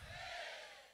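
A loud, sustained roar of many voices shouting a victory cry together at once, a dense crowd cheer that swells and then slowly fades over about a second.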